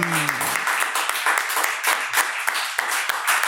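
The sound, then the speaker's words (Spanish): A small group from the studio team claps steadily and warmly for a few seconds for a female guest, a dense patter of hands, with a brief voice at the very start. “Aplausos, equipo, a este mujerón.”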